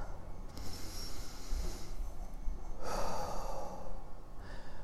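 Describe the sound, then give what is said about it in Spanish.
A slow, deliberate deep breath drawn in and then released in a long, audible exhale, fairly quiet, with no talking over it, taken as a breathing exercise. “Si te acabas de dar cuenta, por favor, para otro momento y respira. Vamos a hacerlo.”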